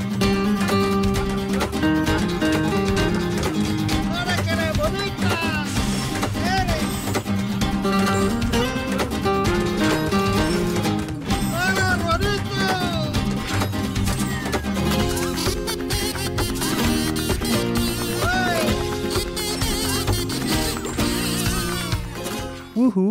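An 8-bit video-game cover of a rock song from a musical level of Rayman Legends plays loudly and continuously, with a bright melodic lead over a steady driving beat and dense accompaniment, no one talking.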